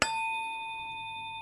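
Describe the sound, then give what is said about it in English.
A quartz crystal tuning fork, the 144, is struck once with a sharp tap, then rings on as a clear, steady, high-pitched tone with bright overtones, fading only slightly. No one speaks. “And it, here, here's what it sounds like. And you, you can watch, those of you who can see it, can watch the tuning forks vibrate.”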